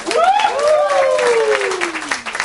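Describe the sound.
A steady wash of applause and clapping runs throughout, with a loud voice whooping over it in a long cry that rises briefly, then slides downward in pitch.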